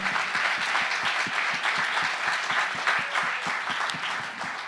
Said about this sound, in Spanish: Dele el aplauso fuerte al Señor.